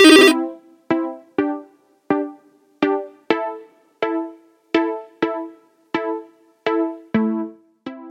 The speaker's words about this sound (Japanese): そんな感じなんですけれども、今日はね、10時ちょっと前から外に出るというので、それまでちょっとね、いろいろとこう、事務仕事的なことを済ましておこうとやっておりましたらですね、電話がかかってきました。